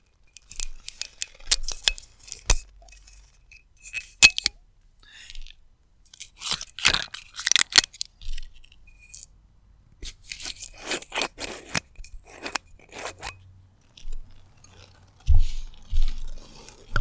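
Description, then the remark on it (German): Crinkling, scraping and snipping as the foil capsule on a bottle of Riesling wine is cut and peeled for a tasting, in irregular bursts of sharp crackles with a few low knocks near the end. “Jetzt erstmal ASMR. Und vor allem eine andere Kapsel.”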